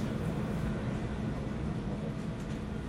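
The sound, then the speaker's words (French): Steady low rumble of a Chicago elevated Green Line train to Harlem and Lake in motion, a dense continuous roar heavy in the bass with faint rattling on top, loud throughout, no voices. “This is a green line train to Harlem and Lake.”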